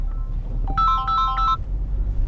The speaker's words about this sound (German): Zwischendurch klingelt permanent das Telefon. Entschuldige.